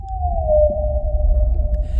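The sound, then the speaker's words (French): A single long, smooth tonal moan glides slowly downward and then holds steady, like a whale call, over a low rumbling wash of underwater-like noise. “ses arbres où poussent des bons becs et ses baleines qui flottent dans le ciel.”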